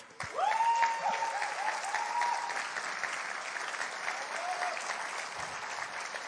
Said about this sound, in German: Es ist sehr gut möglich, äh, wenn du heute da bist oder äh, ich gehe davon aus, dass heute Menschen da sind, die in dieser Zeit von irgendwelchen Dingen frei geworden sind und dieser Applaus gilt jetzt euch.